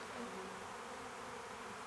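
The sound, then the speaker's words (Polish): A steady, continuous buzz of many bees around a hive, with a dense hum holding level throughout and no voices. “Czujna pola śledziła drogę kręcących się blisko domu pojedynczych owadów.”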